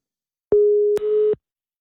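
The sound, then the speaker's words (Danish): A Skype call tone sounds while Radio 24 in Copenhagen dials a caller. It is one steady, clear electronic beep lasting under a second, broken by a click, then turning harsher and buzzier before cutting off abruptly. No one speaks. “Jeg kan sige, kære lytter, det er fordi, vi skyper i dag øh, med folk, fordi der er telefonsystemerne momentant nede.”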